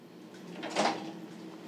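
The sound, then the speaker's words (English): A door is pulled open by a strap fixed to it, grabbed and pulled with the shoulder: one brief rushing scrape that swells and fades within about a second, with no voices. “We put this on the door, and I can grab onto it like this with my shoulder and pull it out.”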